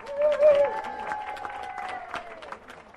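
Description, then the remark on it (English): An audience claps for about three seconds in answer to a question about whether they have listened to audio-described television at home, a moderate, scattered round of applause with a steady tone running through it that fades as the clapping thins out. “If you, in your comfort of your home, in your nice leather easy chair with your feet up, have you listened to audio described television at your home? Please applaud.”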